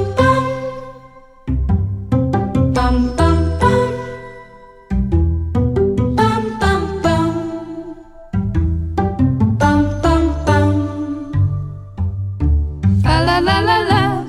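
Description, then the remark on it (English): An upbeat Christmas song's instrumental intro, with bright, piano-like chords struck in a steady rhythm, loud, with no voices, ending in a shimmering high flourish. “very favorite holiday tracks, and it's … by … featuring …, and it's just a great track”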